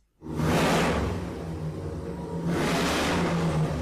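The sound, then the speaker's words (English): A loud, deep big-block motorcycle engine revs hard twice, each throttle blip surging into a roaring rasp before settling back to a heavy, rumbling idle, with no voices. “Sounds like a big block.”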